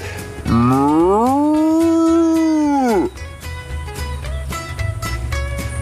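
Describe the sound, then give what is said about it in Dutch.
A dairy cow on a farm in Middenbeemster gives one long, loud moo that rises, holds steady for a couple of seconds and then drops away, followed by quieter farmyard noise with scattered clicks and knocks. “Samen met hem nam ik de diverse loeien door van zijn koeien.”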